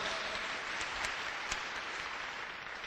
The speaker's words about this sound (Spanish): Otro aplauso a la Virgen de Guadalupe.